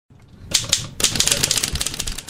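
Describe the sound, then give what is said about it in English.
Rapid typewriter keys clatter in irregular bursts in a typewriter repair shop along the train tracks on Greenwood Boulevard in Maplewood, with a brief pause before a denser flurry of sharp mechanical strikes; a faint voice may sit underneath. “Along the train tracks in Maplewood on Greenwood Boulevard sits Jones Typewriter Repair.”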